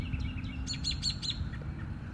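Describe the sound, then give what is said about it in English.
Birds chirp outdoors in a field with flowers: a quick run of four or five bright, high tweets in the middle, with fainter calls around them, over a steady low rumble of wind or other noise. “Just like He is using these birds to spread seeds into this field so that the flowers that I'm looking at exist as a reflection of His divine authority and a reminder of His eternal grace.”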